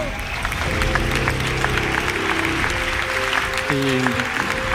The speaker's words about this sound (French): Un applaudissement.